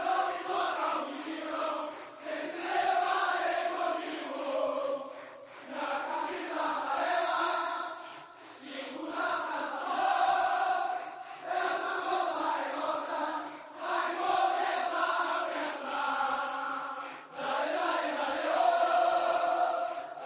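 A large stadium crowd of Brazilian football fans chants a melodic, rhythmic song in unison, phrases rising and falling in repeated waves, loud and continuous with a roaring, massed-voice quality.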